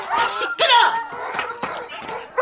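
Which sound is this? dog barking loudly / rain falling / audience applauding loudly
dog barking loudly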